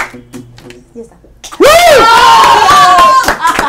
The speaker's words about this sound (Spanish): Qué paja tener aplausos, Alucina. Gracias por venir. Gran obra.